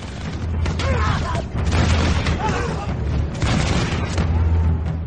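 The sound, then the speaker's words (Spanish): Arquebus volley gunfire at night: dense, crackling bursts of shots layered over a continuous low rumble, with shouting voices mixed into the din throughout. “De súbito, a su siniestra, un sinfín de fuegos iluminaron la noche, siendo el preludio de una descarga de arcabuces que dieron con ellos tan cerca que muchos cayeron de tal arte que empujaron a los suyos.”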